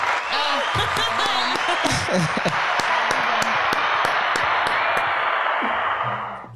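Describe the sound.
A crowd applauds with dense, steady clapping that fills several seconds at an even loudness, with voices calling out underneath before the clapping fades at the end.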